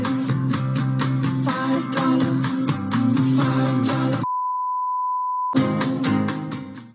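A catchy Subway commercial jingle for the five dollar footlong sandwich plays with busy, bouncy music. Partway through, it cuts to a steady single-pitch beep for about a second before the tune picks back up.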